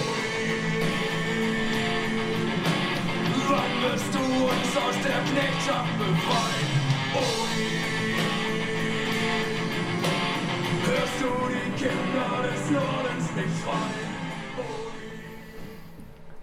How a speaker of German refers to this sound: ja, Rechtsrock kann vielfältig sein. Das merkt man, glaube ich, auch musikalisch. Und ich bin mir gar nicht sicher, ob man beim ersten Mal gemerkt hätte, oh, das ist eine Rechtsrockband, weil diese mittelalterlichen Klänge, die hier so angeschlagen